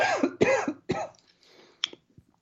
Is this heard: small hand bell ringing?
no